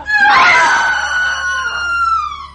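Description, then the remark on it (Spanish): A woman's shrill, terrified scream rings out loud, a single piercing cry held for a couple of seconds before tapering slightly at the end. “de terror de la chica de la película y de … se confunden espeluznantemente”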